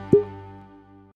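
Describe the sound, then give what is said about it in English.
A bottle of Ohishi eight-year-old Sherry Cask Japanese whiskey is opened: its cork comes out with a single hollow pop, followed by a faint resonant hum that slowly fades over about a second. No one speaks. “Opening the bottle.”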